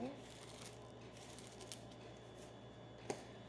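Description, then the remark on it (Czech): Cards being dealt out during a card reading: soft, papery swishes and light slaps over a steady low hum, ending with one sharper snap of a card landing. “E, co se týče partnerské oblasti, já ještě hodím další karty.”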